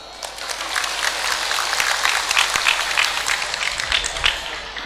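A crowd applauds at the speaker's invitation, many hands clapping in a dense, sustained patter that holds at an even, fairly loud level for about five seconds, with no one talking.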